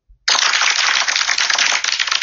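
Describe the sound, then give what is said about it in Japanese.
A burst of applause sound effect starts abruptly after a brief low thump: dense, crackling clapping that holds steady and loud for about two seconds, with no voices. “ちょっと拍手入れてみました。”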